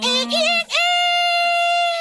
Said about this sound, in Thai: เอ้ยวันนี้มีไก่มาขันในรายการของเราด้วย อ้าวก็เป็นสัญลักษณ์ไงล่ะตอนเช้าเช้าจะมีเสียงไก่ขันแบบนี้นะไก่ที่ไหนขันสายขนาดนี้แล้ว